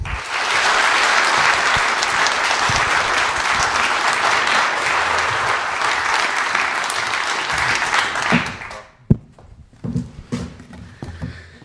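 Sustained audience applause, a dense, steady wash of many hands clapping for about eight seconds, then it stops abruptly, leaving a few scattered knocks and faint movement.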